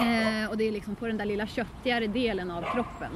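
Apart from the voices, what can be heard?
dog barking nearby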